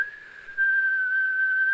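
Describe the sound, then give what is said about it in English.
A person whistles one long, steady high note, fairly loud, swelling in volume partway through and holding the same pitch to the end, with no talking; the whistle imitates an alien's whistle as it heals someone. “And they whistle. Oh God, I apologize if that went into your ear.”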